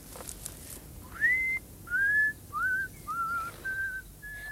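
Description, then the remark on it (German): A man whistles a casual tune to himself while walking back and forth in a garden, a series of clear, rising and gliding notes in short phrases with brief pauses, moderately loud, no talking. “ging da unten im Garten hin und her und pfiff vor sich hin.”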